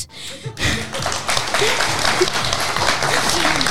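A large audience breaks into sustained, dense applause that begins abruptly after a brief pause and continues steadily, loud and close, with some voices faintly mixed in.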